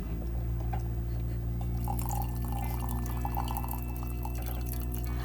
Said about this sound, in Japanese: 美味しいコーヒーを入れてくれてるんですけど どんな音に聞こえてるんだろう 何の音かな何の音だろう